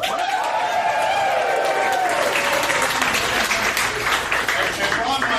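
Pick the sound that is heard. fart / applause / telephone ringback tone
applause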